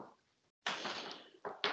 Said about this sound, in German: Was rennst du die ganze Zeit in der Wohnung umeinander? Du knarzt die ganze Zeit. Achso, hört man das?